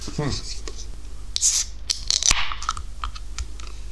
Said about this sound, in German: Das war übrigens auch ein Hörerwunsch, dass man doch bei einer Biersendung auch das Bier öffnen mal mithören sollte. Das ist gelungen.